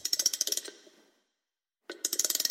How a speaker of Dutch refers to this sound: En hebben we bij anagrammen een heel geraffineerd ratelgeluidje ingevoegd. En dat klinkt zo.